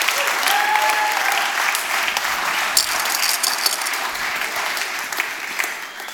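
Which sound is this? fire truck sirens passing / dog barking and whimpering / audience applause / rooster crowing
audience applause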